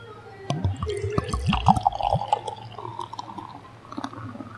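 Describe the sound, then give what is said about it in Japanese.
Tokyo Blues Session Ale, an amber craft beer, glugs from a bottle into a glass, with a burst of gurgling pours over the first couple of seconds, then a softer fizzing of foam settling, clear. “ね次ますよ。いい音です。”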